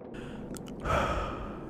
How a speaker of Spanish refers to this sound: Pulsó la planta más alta y dio una respiración larga y sonora en la espera.